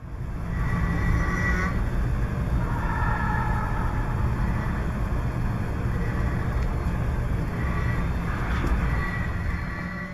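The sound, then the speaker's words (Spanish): A subway train rumbles steadily while metallic, snore-like tones swell and fade in a few long drawn-out bursts over the constant low roar, recorded by metro engineers exploring a train at the platform. There is no talking. “está roncando el tren, que es ese sonido que escuchamos muy metálico”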